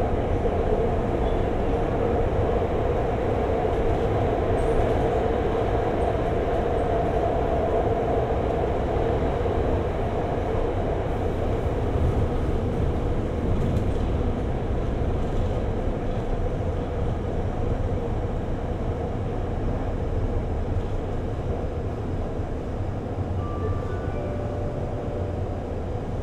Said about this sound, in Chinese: 本次列车开往紫园湾方向，下一站玉秀东路。